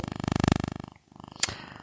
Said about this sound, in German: Ich habe vergessen, mein Handy auf den Flugzeugmodus zu stellen. Dieses wunderbare Geräusch, was ihr da gerade gehört habt, war mein Handy.